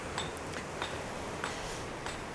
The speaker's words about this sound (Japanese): 盛んに石をハンマーで叩いております